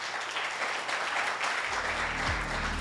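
An audience applauds the word of God steadily, a dense, even wash of many hands clapping throughout, and partway through a low sustained keyboard or organ tone comes in beneath the clapping.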